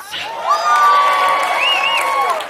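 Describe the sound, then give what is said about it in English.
An audience cheers loudly and steadily for a dress, with high-pitched whoops and screams rising above the crowd noise and sustaining for a couple of seconds. “So make some noise for the dress.”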